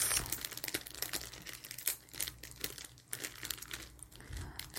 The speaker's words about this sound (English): um, a plastic bag, a clear, clear plastic bag with balloons in it. The balloons are black and gold